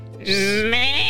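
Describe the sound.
A person imitates a sheep's bleat with one sustained, wavering "meh" that holds a steady pitch for under a second. The voice is loud, with no other sound.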